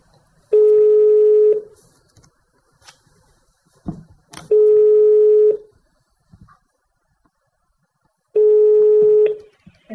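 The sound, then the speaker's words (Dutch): A telephone ringback tone sounds three times after a phone number is dialed, each steady buzzing ring lasting about a second with long silent gaps between, with a few faint clicks and knocks in the pauses. “Maar tot onze verbazing vinden we een telefoonnummer.”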